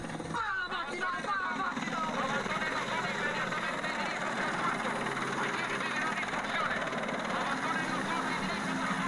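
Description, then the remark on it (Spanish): A helicopter approaching in a video clip, its loud, steady whirring roar filling the whole clip without letting up, mixed with a busy wash of other noise and faint voices underneath. “Y ahí viene el helicóptero.”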